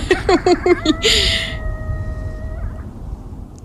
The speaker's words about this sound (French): Alors voilà le cri d'un coyote, si vous vous demandiez, ça sonnait comment? Ben ça sonne comme ça.